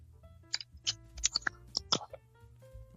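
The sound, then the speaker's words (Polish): Someone opening a beer, heard as a quick run of sharp clicks and snaps spread over a couple of seconds, with a faint low hum underneath and no talking. “Czyli no, taki od, odgłos otwieranego piwa, domyślam się, troszkę y, chyba.”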